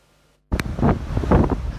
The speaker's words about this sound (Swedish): De här kraftiga vågorna fångades på film under söndagen på Sveriges västkust.